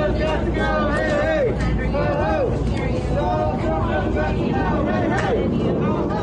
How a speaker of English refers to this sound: Stop the steal and count my vote, chanted the protesters, some armed with rifles and handguns.